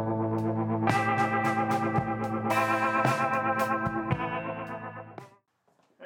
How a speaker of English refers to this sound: that music makes me want to go surfing.